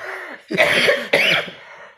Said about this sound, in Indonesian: Gue udah masa orang podcast dengerin lu batuk.